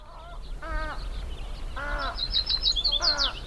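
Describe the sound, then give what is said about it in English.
A mix of warbler, willet and other bird calls at dusk on a calm, still evening at a field station in Navopatia, a fishing town on the Agiabampo estuary in Sonora: three loud, harsh harmonic calls spaced about a second apart, with a flurry of quick, high chirps joining in near the end, over a low outdoor rumble. “It's dusk at the Navopatia field station, and a cacophony of warblers, willets, and other birds fills the otherwise calm, still evening.”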